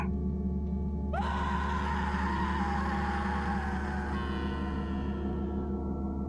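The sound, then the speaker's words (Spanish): A long, drawn-out human scream, a person desperately crying for help inside a station, rises sharply and then holds for several seconds, ringing with echo, over a steady low droning hum. “Y después, se escuchaba el eco de una persona gritando dentro de la estación, pidiendo desesperadamente auxilio.”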